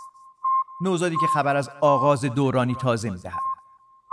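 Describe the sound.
A thin, high-pitched radio beep signal from the Sputnik 1 satellite, a short pulse followed by a steady tone that continues faintly beneath a voice speaking over it, then resumes alone.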